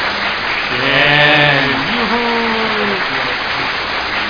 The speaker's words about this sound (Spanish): aplausos, tío, meta aplausos ahí.